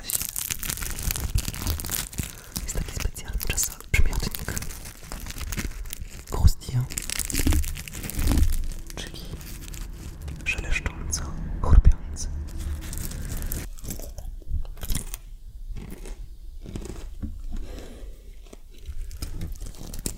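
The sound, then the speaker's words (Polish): Crinkly tearing and crunchy chewing of croissants, with irregular bites and rustles over about twenty seconds, ASMR-style, with occasional soft vocal sounds. “Słuchaj, e, ja myślę, że zachowam ten piękny gastrowstęp, bo nic tak nie zachęca do, e, do rozmowy jak jedzenie, niczym nasze piękne croissanty, które tutaj leżą. Ale może zrobimy ten fragment ASMR.”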